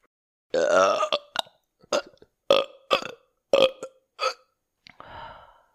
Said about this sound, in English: And I am ripping farts, man. I am burping. I've got a bubbling cauldron of something going